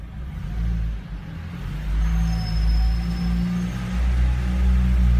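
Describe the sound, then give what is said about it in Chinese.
A Jeep Compass engine straining at full throttle uphill, held at about 2,000 rpm with the accelerator floored as the car slowly creeps up the slope, a loud, steady low droning roar that holds at an even pitch without climbing, with no voices over it. “现在我的转速已经到两千转了，两千转，油门踩到底，转速上不去了。”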